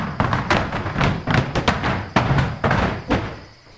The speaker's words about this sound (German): Aber kurz nachdem sie aus dem Schuppen heraus waren, stolperte einer der Diebe über eine Hacke und krachte gegen einen Stapel Holz. Autsch! Der kippte mit einem lauten Gepolter um.